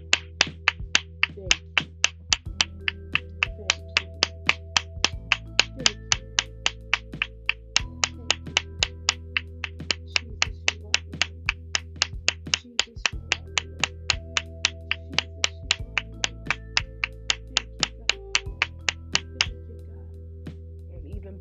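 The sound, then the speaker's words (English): Hand claps of praise keep a quick, steady beat, sharp and evenly spaced, running throughout over a backing of music with sustained low notes that change every few seconds. “I clap and that multiplies the praise.”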